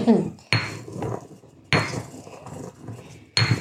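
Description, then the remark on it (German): A mortar and pestle clatters: several sharp, ringing knocks of hard stone or ceramic, spaced unevenly a second or so apart, each trailing off into a brief resonant decay. “Mit diesem Mörser habe ich auch mein erstes Marzipan gemacht.”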